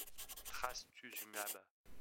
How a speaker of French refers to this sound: Je décide alors de lui faire un signe. Je lui prends la main et je lui écris sur une feuille devant moi